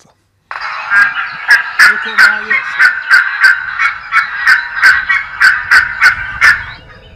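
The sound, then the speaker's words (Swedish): A gull's alarm call: a loud, rapid series of about fourteen harsh, barking notes in a steady rhythm, sounding alone for several seconds. “Det här var ett varningsläte för trutar.”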